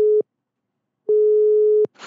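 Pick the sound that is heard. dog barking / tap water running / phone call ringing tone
phone call ringing tone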